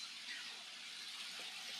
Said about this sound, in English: sorry another car drove by